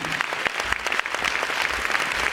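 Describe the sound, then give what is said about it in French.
A crowd applauds the mayor once more, a steady, dense patter of many hands clapping at once with sharp individual claps poking through, sustained at an even level throughout. “je vous demande d'applaudir encore une fois Monsieur le maire.”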